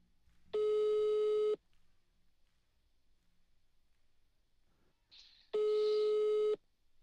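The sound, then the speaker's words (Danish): Ringback tone of an outgoing phone call: two steady, one-second electronic beeps separated by about four seconds of near silence, heard alone with no talking. “Jeg, øh, jeg ringer lige til Michael igen og hører, om han er kommet langt, eller om han stadig sidder og kugelurer uden for Fredericia.”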